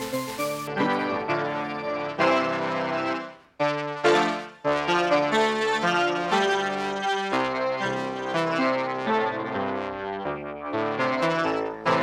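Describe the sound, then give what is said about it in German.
A synthesizer playing an organ-like tone, sustained chords with rich stacked harmonics shifting every second or so, fairly loud, with two brief dropouts midway and no voices. “Das, das ist ein Orgelsound, das ne?”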